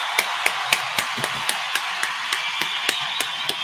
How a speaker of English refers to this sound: Always got to give a round of applause when you actually do it. We appreciate you.